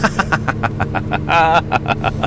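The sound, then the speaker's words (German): A 400-horsepower snow groomer's diesel engine runs loud and steady, a deep rumble with rapid, regular chugging pulses, the machine shaking with its power as its claws press into the snow. A brief higher-pitched tonal sound rises over it midway. “Und das wackelt, also man merkt richtig die Kraft von diesem Gerät.”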